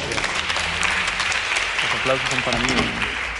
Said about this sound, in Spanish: No sé, vamos a preguntar, ¿para quién son los aplausos? ¿Para recibirme a mí o para despedir al Jajam? ¿Eh? Pues se necesita doble aplauso entonces.